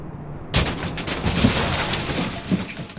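A car crash: after a brief quiet moment, a sudden loud impact bursts in, followed by about two and a half seconds of harsh, noisy crunching and scraping of metal, with no talking.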